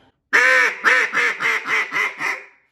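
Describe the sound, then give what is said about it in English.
A duck call blown in an excited hen cadence to hold passing ducks' attention and make them turn: one long, loud opening quack followed by six quicker, evenly spaced quacks that fade slightly, with no talking. “and I hit a little faster in that hen cadence, showing excitement, showing a little bit of aggression that right there, I'm gonna get it, I'm gonna cause those ducks to, to turn when you hit that specific spot.”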